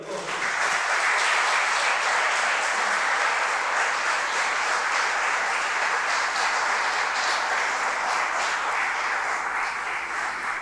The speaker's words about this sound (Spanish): ¿Cuánto le pueden dar un aplauso al Señor?